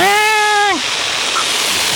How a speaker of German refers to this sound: Während der Nils von der Wassermasse weggeschwemmt wird, schleichen Carlotta und der Fred am Kanalmonster vorbei durch die graue Türe.